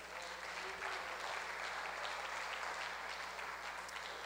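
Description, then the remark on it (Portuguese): An audience at an afternoon gathering applauds Jesus steadily, a dense wash of many hands clapping at an even level throughout, with no break or clear rise and fall. “se pode aplaudir Jesus nessa tarde?”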